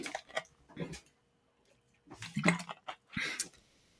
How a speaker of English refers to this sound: Sorry, I'm going to take a sip of water.